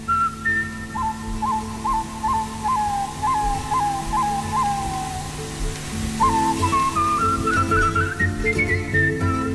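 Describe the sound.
A man whistles a lively melody, short repeated notes at first, then rising trills and runs, clear over a full musical accompaniment.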